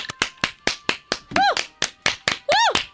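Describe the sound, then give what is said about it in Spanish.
A steady run of about a dozen sharp hand claps at a brisk, even pace, done on request of a mock call-center phone menu, with two rising-and-falling vocal whoops cutting in over the clapping. “Ahora aplauda. Aplauda”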